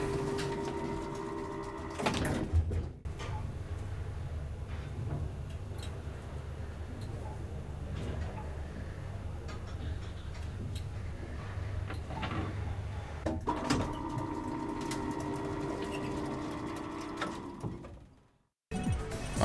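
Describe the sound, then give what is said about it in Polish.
A steady mechanical hum and low rumble with faint ticking from an elevator in a video game, framed by clunking transitions near the start and end; no voices, fairly quiet and continuous. “O właśnie, tu jest winda.”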